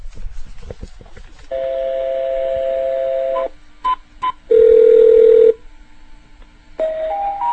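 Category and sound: signal or alarm, telephone keypad dialing tones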